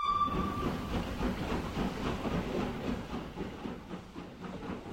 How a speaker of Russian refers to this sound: А между тем уже и протокол готов, и поезд отходит.